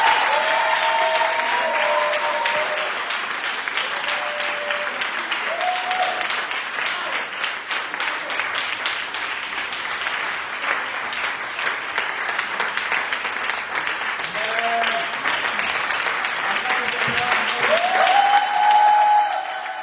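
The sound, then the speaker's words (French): An audience applauds steadily for about twenty seconds, a dense, even wash of many hands clapping, with a few faint voices and whoops rising briefly above it. “On va applaudir pour lui.”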